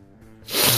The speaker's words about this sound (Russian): Будь здоров.